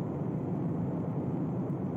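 A steady, unbroken wash of brown noise, deep and muffled like white noise with the hiss rolled off, holding an even moderate level throughout with no voices or other sounds.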